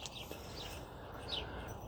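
A few faint, high bird chirps sound over a steady background hiss in the morning, scattered irregularly rather than in a rhythm, with no one talking.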